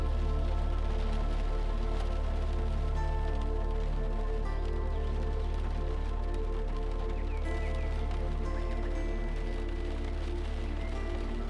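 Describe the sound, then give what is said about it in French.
Steady rain falls continuously with an even, unbroken hiss, joined by a low sustained hum. There are no voices and no distinct pauses throughout. “Concentrez-vous sur le bruit de la pluie. Ce murmure régulier qui semble créer une bulle protectrice.”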